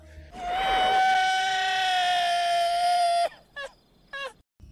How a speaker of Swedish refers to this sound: han ger från sig ett fantastiskt skrik som jag tycker Gustav ska klippa in här.